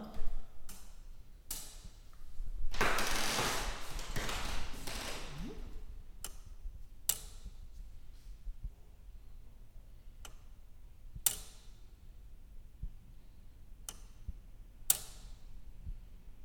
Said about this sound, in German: Wir hören das Ticken des 700 Kilogramm schweren Uhrwerks, das von 1699 bis in die 1860er im Südturm des Stephansdoms für die Zeitmessung zuständig war. Weil sich der Turm durch das große Gewicht zu neigen begann, musste es entfernt werden.